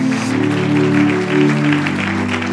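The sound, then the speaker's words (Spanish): An audience applauds God loudly and steadily, a dense wash of many hands clapping over sustained low musical tones, with no pause for the whole stretch. “Si vas a aplaudir, apláudele bien, vamos, apláudele fuerte a nuestro Dios.”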